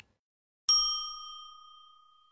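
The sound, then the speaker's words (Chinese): A single bright chime, used as a cue for children to say their line in an English lesson, strikes once after a moment of silence, its clear high tone with shimmering overtones ringing out and slowly fading away. “小朋友听到“叮”的声音后，说出你的那一句。”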